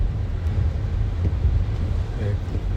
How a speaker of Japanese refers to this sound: 今日福岡県は雨が降ってますね今あの整骨院に向かって車を走らせてるとこなんですけど